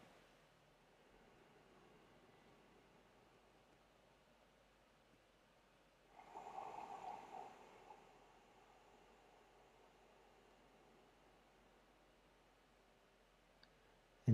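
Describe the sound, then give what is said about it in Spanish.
A single soft, airy breath rises and fades midway through, a gentle whooshing swell surrounded by long stretches of near silence and faint background hiss. “este sonido que genera nuestra respiración al inhalar y al exhalar.”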